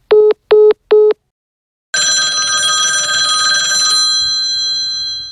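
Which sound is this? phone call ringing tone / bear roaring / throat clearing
phone call ringing tone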